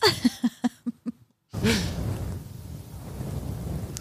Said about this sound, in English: Here's some more head pets.